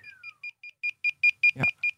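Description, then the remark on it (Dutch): A rapid series of electronic beeps from a Segway Drift electric roller skate's alarm, set off because its wheel is spinning in the air, evenly spaced about four per second and growing louder, with a brief thud or rustle near the end. “Hij slaat nu alarm omdat hij met zijn wiel in de lucht maait.”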